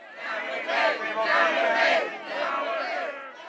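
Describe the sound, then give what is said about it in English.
A large crowd of protesters chants and shouts together while dancing the toyi-toyi, a traditional South African protest dance, many voices merging into loud, rising and falling surges that swell in rhythmic waves with no single voice standing out. “It's a traditional South African protest dance.”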